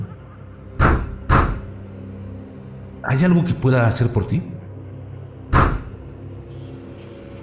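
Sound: knocking on a door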